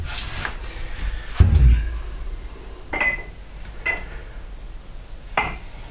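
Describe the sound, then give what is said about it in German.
Various glasses and cups knock and clink as they're handled and a larger glass is picked out as a vessel, with about five sharp, irregular taps, a low thud, and a couple of brief bright ringing chinks among quieter shuffling. “Also wir haben hier verschiedene Gläser und Tassen.”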